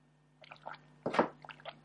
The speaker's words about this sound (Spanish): dejadme beber un poco de agua.